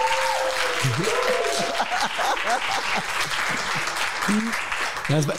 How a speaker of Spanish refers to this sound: mira qué bonito aplauso de nuestra gente.